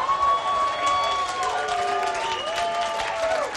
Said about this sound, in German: Applaus!